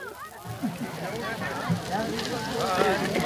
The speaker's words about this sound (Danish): Så kom der rigtig gang i bålet, og så afsynges Danmark nu blunder den lyse nat.